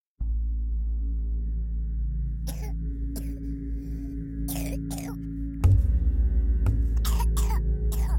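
A three-year-old girl coughs hard in a series of harsh, broken bursts, loud, in a bedroom filled with a white cloud, over a steady low droning hum that grows fuller partway through.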